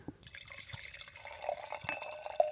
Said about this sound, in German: Also solche Einschenkgeräusche, glaube ich, sind jetzt eine Premiere im Podcast.